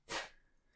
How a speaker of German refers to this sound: Und ähm, Gesundheit